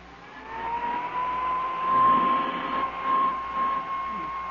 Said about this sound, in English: what's the point of going over that coat with a hand vacuum?